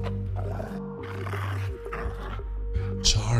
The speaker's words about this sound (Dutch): En zoals Charlie reeds vermoedde, keken ze niet zo vriendelijk, die beesten. De grootste van de roedel kwam naderbij en begon nijdig te grommen.